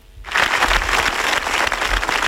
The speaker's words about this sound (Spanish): En la Plaza Mayor se guardaron ayer cinco minutos de silencio tras los que centenares de personas aplaudían en recuerdo de la niña.